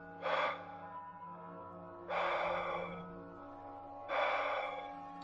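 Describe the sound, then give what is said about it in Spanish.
Soft, close-up breathing right against the microphone, three airy breaths spaced about two seconds apart, each a brief hiss of air with quiet stillness between, and no one speaking. “El ambiente se tornó frío y comencé a escuchar una leve respiración en mi oído.”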